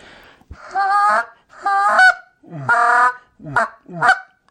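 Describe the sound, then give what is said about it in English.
A goose call blown in five bursts: three drawn-out, reedy honks followed by two quick, clipped clucks, loud, with short silences between and no one talking. “Uh, and typically, when we're calling geese on water, we're not doing much more than that anyway.”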